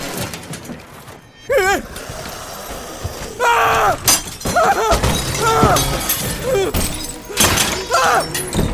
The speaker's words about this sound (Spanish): Los cadáveres comenzaron a apilarse uno por uno alrededor de la cabaña y lo que en un principio eran unos cuantos, ahora eran incontables muertos vivientes, rompiendo vidrios y puertas, abriéndose paso al interior de la bodega.